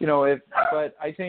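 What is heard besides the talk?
dog barking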